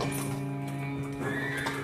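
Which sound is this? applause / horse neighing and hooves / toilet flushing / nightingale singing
horse neighing and hooves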